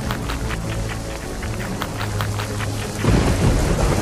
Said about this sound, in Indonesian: Lalu Tuhan menurunkan hujan selama 40 hari 40 malam hingga air menutupi seluruh bumi.